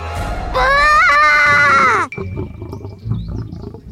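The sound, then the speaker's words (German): A single loud lion roar rises sharply, holds for about a second and a half, then cuts off abruptly, leaving a low rumbling background. “Sie stand direkt unter dem Maul des hungrigen Löwen.”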